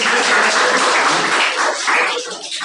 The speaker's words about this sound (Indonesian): Tepuk tangan dong